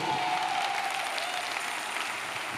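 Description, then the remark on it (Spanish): A crowd applauds steadily, a dense, continuous wash of many hands clapping at a fairly loud, even level throughout, with no distinct individual claps standing out. “Dame el aplauso fuerte.”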